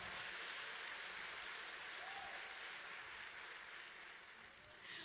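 Sustained applause for the Lord from an audience of women at a Christian gathering, a dense wash of many hands clapping at a steady, loud level throughout, easing slightly toward the end with a few sharper claps standing out.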